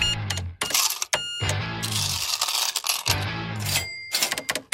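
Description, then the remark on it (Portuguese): Coins clink and rattle in a cash register drawer, bright metallic jingles in several quick bursts with short pauses, loud and busy, with no voices. “O dinheiro trocado para miúdos.”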